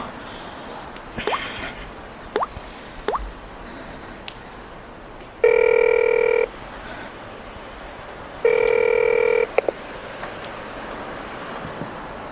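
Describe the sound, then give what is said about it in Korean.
A telephone rings twice, each ring a steady, buzzy electronic tone lasting about a second with a pause between. Scattered soft drips and clicks come before it, and nobody speaks. “이제 전화 받으시네요.”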